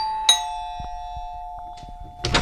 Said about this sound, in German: Ein Hausverwalter klingelt an der Tür der Redaktion.